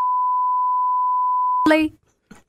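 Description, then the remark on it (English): A steady, loud censor bleep covering a spoken swear word holds one high pitch for about a second and a half, then cuts abruptly into a brief burst of voice and a short trailing sound. “I don't know which part to bleep, but that, I'm gonna bleep the whole thing.”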